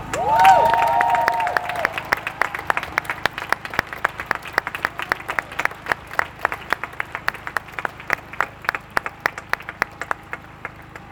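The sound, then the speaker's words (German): A demonstration crowd bursts into steady applause for the activists, opening with a brief whistle and cheer, then sharp, distinct claps continuing at an even pace for about ten seconds and gradually thinning out. “Und das gehört einfach applaudiert.”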